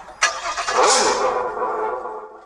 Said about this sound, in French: Ça, c'est le son voiture.